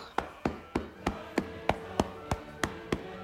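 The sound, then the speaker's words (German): A steady run of about eleven quick, soft slaps as hands pat rhythmically along the leg in a self-massage, evenly spaced, with no talking. “Ja, und ihr könnt euch denken, dass dieses genau auf der anderen Seite ebenfalls geklopft wird.”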